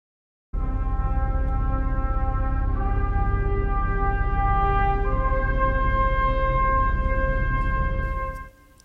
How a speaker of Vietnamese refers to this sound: Đây đều là những đoạn nhạc hết sức quen thuộc với chúng ta, nhưng các bạn có biết chúng đã có đến hàng trăm năm tuổi